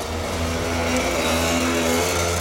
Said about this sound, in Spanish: pero yo no me pensaba que esto iba a haber tanto tráfico por mi calle siempre, pero está la gente alterada en verano.